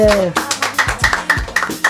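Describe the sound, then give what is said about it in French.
Brief applause of a few steady, rhythmic claps, about four per second, with voices talking and calling out over them. “Ok, bien, ah, c'est bon, on applaudit.”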